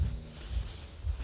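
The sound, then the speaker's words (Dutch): Soft, muffled footsteps of someone walking outdoors, a few low thuds in a steady rhythm against faint background noise, with no one speaking. “Nou, jullie horen het misschien al op de achtergrond. Ik ben aan het wandelen”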